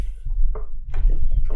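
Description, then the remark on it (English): Someone sips coffee: a few short, wet sips and gulps come in quick bursts over a steady low rumble. “Ah, and that was the sound of me This is drinking not water.”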